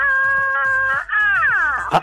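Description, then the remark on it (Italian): A loud, wailing battle cry from Snow White in the animated film Shrek the Third: one high, steady note held for about a second, then a wavering slide downward, ending in a short harsh burst. No other voices. “lo sai che per i più giovani questo è il grido di Biancaneve in uh, film d'animazione Strack terzo.”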